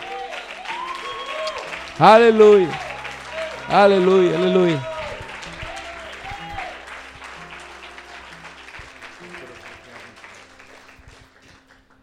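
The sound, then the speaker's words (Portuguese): An audience applauds in a steady, dense wash of clapping while a voice rings out loudly twice over it; the applause then gradually thins and fades. “Vamos dar uma salva de palmas aí.”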